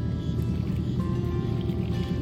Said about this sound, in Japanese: えー、皆さん今波の音セミの声ボートの音聞こえますでしょうか今ですねシドニー郊外の入江に来てるんですがここは入江なのでね波もなく、えー、水際でね水がパチャパチャいってますけれどもえー、セミも鳴いてですね夏らしい雰囲気が聞こえるでしょうか